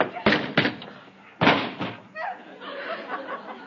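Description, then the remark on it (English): A man runs into a door with heavy thuds: two quick bangs, then another loud impact a second later, followed by muffled voices and faint laughter. “I didn't hit him. He ran into the door.”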